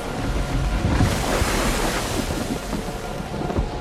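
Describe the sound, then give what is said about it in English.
Steady, loud surf with rushing wind, a continuous roar of breaking ocean waves that swells slightly near the start and end, with gusty wind buffeting throughout and no voices. “he's starting to look at the waves instead of focusing on Christ”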